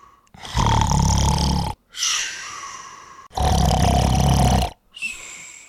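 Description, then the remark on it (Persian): Loud, deep snoring of a sleeping giant (div) that shakes the palace, with a rough, roaring rumble: two long grating inhales, each followed by a softer, airy exhale, dominant with no talking. “خلاصه دیو خوابید خورخورش بلند شد و قصر رو لرزوند”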